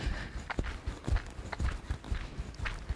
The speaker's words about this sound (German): Einfach auf den Zehenspitzen gehen.